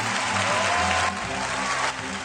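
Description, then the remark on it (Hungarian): A paid studio audience, hired through Casting Office Kft., applauds steadily on a Hungarian state television production: dense, loud clapping with no voices, easing slightly in volume twice before the end. “A bértapsolókra megint majdnem ekkora összeget költ az állami média.”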